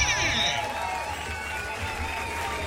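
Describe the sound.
An audience claps and cheers steadily for two finalists over a low background rumble, with voices calling out through the noise for a few seconds.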